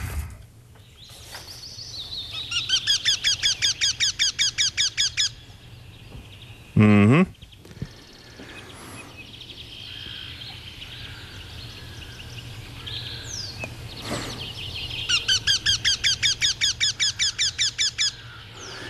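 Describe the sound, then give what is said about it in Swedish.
A Eurasian wryneck calls twice: each time a rapid, even series of about a dozen ringing, nasal notes, clear, separated by a long pause with a brief knock and faint background noise. “Ska vi ta och lyssna till Göktytan här?”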